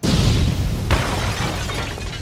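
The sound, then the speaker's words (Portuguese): A small slip of paper is crumpled into a ball and thrown away, a dense, steady crackling and rustling that lasts about two seconds, with a sharper crinkle partway through. No one speaks. “Amassei o papelzinho, joguei fora.”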